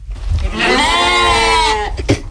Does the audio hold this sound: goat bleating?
yes